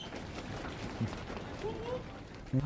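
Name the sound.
running footsteps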